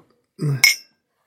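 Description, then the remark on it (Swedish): Small shot glasses shaped like a birch trunk clink together once in a toast, a bright, ringing tap, right after a short voiced exclamation. “Och det är några snapsglas. Uh, som ser ganska speciella ut. Ja. De är eh, gjorda som en modell av en, en björkstam tror jag.”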